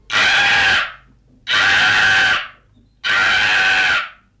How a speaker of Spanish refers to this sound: Pasó una lechuza de ojos de fuego, voló tres veces sobre ellos y chilló.